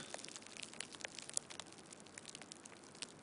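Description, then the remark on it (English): A small balled-up piece of saran wrap is released and slowly unfurls with a steady, fine crackling and scattered sharp ticks, quiet, used as a sound effect for a cigarette burning up close. No voices. “it actually sounds a lot more authentic if you take a small saran wrap ball and release it.”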